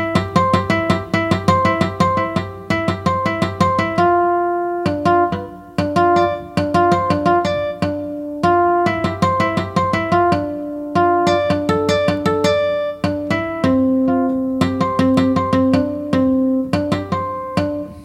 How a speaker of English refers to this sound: Acoustic harmonics. Okay, let's play that. think here's some harmonic on guitar.